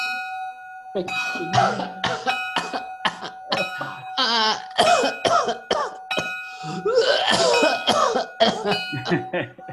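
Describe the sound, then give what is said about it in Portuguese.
A string of forced, exaggerated coughs bursts out in quick uneven succession, loud and raspy, while a steady bell tone rings underneath the whole time. “É, pra, pra, pra, dar um fake nessa tosse aqui foi um, um, um custo.”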